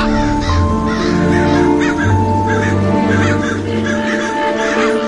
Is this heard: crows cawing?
yes